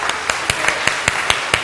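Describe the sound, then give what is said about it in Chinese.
Church audience applause for the standing mothers at a Mother's Day celebration: a steady wash of many hands clapping, with sharp, evenly spaced claps standing out about every fifth of a second, fairly loud and with no talking. “好，我们请在场的妈妈，请你站立，我们一起用热烈的掌声来为我们的在场的妈妈来跟他们说母亲节快乐。”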